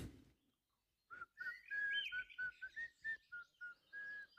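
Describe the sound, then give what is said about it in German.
Quiet, high whistling in a quick run of short, bird-like notes, some rising or held slightly longer, following a brief low thud at the start, with no talking, heard while approaching a beach. “Als du Richtung äh, Strand gehst und dich dem Strand äh, näherst, äh, hörst du ein ähm, leises Pfeifen.”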